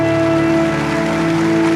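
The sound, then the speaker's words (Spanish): An audience applauds loudly for the Lord at a church service at night, a dense, steady wash of clapping that fills the space, with sustained keyboard tones humming underneath. “Dele un aplauso al Señor si usted lo cree. Déselo bien fuerte en esta noche.”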